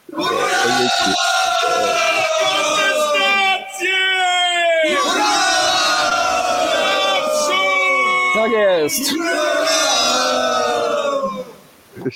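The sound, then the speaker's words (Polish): A loud group of voices cheers, yells and whoops almost nonstop for about twelve seconds, with pitch sliding up and down and brief dips before the shouting swells again. “A co do psa to jeszcze, no weź, weźmy jakieś brawa, no.”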